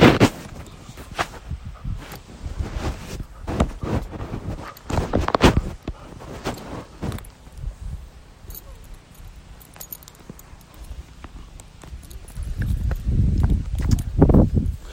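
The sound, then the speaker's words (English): Metal tags jingle and quick footsteps patter past as a dog walker passes with dogs in a residential neighborhood, a rhythmic clinking and tapping that swells, fades briefly, then grows louder again near the end. “So that was a dog walker in our in our community.”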